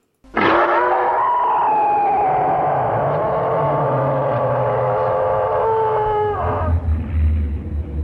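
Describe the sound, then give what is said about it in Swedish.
A huge, drawn-out roar of the dragon Katla from the film Bröderna Lejonhjärta (The Brothers Lionheart), a harmonic, wailing bellow that slowly glides downward in pitch for about six seconds over a deep rumble, then fades into low noise. “Och där är ju, i Bröderna Lejonhjärta, det är ju det här Katlas ljud.”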